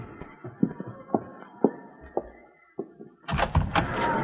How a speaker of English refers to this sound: And don't open that door so wide you'll blow the lamp out.